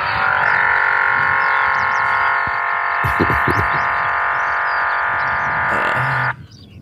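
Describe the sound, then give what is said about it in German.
A loudspeaker deterrent on a field near Krain, which sounds every ten minutes to keep sea eagles from nesting, blares a loud, steady, buzzing drone with rich harmonics for about six seconds, a few low thumps underneath, then cuts off abruptly. No one speaks. “Hier würde eigentlich ein Adler nisten, wenn mhm. nicht alle zehn Minuten dieser ah. Lautsprecher ertönen würde.”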